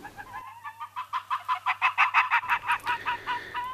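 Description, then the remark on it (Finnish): An arctic fox gives a rapid run of short, high-pitched yapping barks, around fifteen in quick succession, clear, rising in intensity before trailing off. “Ikävä kyllä yhä harvemmin tunturialueellamme kuuluu lyhyitä haukkuja tai erikoista ulvontaa.”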